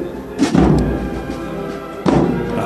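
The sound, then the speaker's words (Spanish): Two deep, booming bass drum strikes about a second and a half apart, each ringing out briefly over a low murmur of outdoor ambience, played by a band in a Holy Week brotherhood procession of Nervión on Holy Wednesday. “Así suena el redoble de un tambor de Rosario Cádiz y así un bombo.”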